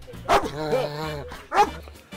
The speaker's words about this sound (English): See. I thought I was being attacked by a dog.